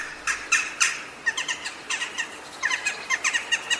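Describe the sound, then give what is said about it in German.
A flock of corvids calls overhead in the evening, flying in large flocks with carrion crows to their roosting sites, a dense series of short, sharp, squawking notes overlapping in an irregular chatter, fairly clear, with no voices. “Sie trifft man eher selten im richtigen Stadtgebiet und manchmal hört man sie abends ganz deutlich, wenn sie mit den Rabenkrähen in großen Zügen zu den Schlafplätzen fliegen.”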